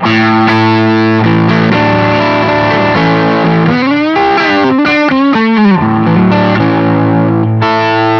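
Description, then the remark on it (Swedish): A distorted electric guitar plays a lick on the neck pickup, sustained thick notes with bends and vibrato in the middle, loud and alone with no talking. “Samma mitt- lick nu, mick. mitt mick. Halsmick.”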